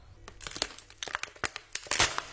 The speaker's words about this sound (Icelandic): Síðan fann ég rosa fínt hljóð í endan á því þegar ég var að kremja flösku úr fristinum.